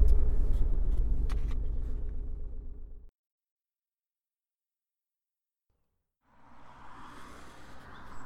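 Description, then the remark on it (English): A car engine rumbles with a few sharp clicks like a door, then goes silent for several seconds before road noise from a moving car rises again. “Hmm, sounds suspiciously like a car door.”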